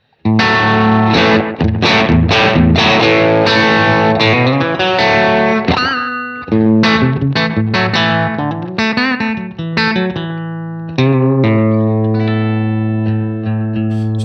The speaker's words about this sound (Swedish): lyssna och se om vi kan få till ett Eh, ett sånt här overdrive-ljud med Schaefer-replika, eh, mm. The Storm-pedalen.